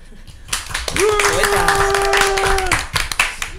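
A burst of steady applause from a group clapping for about three seconds, with a sustained high cheer or whoop held over the middle of it before the clapping tapers off.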